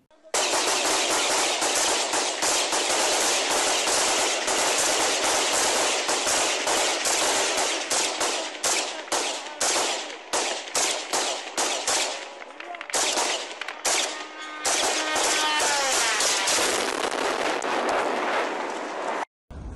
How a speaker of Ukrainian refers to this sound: Э, наша девочка увидела, откуда летит, обозначили цель. Он же, ну, он летел чуть дальше в сторону Кудряшова, открыли огонь, э, старались брать упреждение,